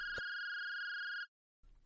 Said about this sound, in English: Eh, what's that ringing? Is there a phone inside the steamer trunk? Uh, it, it, it's my old cell phone. I have all my stuff packed in there for the move. I must have forgot to turn it off.